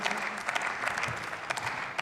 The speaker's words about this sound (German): ja, der Applaus von Ihrer Seite wird Ihnen noch vergehen, weil wir diesen Standpunkt ganz anders einbetten, als Sie das tun.